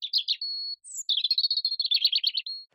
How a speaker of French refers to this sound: Celui que vous venez d'entendre est un rouge-gorge familier. Et aussi familier et commun soit-il, c'est un oiseau d'exception.